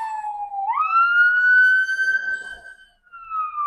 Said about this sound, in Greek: Ασθενοφόρο ήταν αυτό.